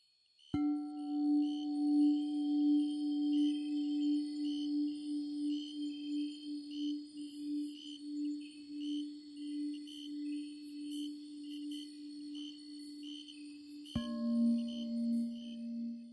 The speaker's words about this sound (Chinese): 就是一个，它应该算是西藏还是哪儿的尼泊尔一个乐器或者是法器乐器吧，因为它会发出一定能量的那种声音，就是你一敲它就会嗡，有非常深远和持久的那种震动的声音。